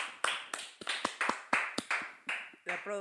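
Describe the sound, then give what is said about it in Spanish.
A single person, the show's producer, claps for herself alone: about ten sharp, slightly uneven hand claps in a steady run. A brief voice sound comes in at the very end. “productora que se aplaude sola.”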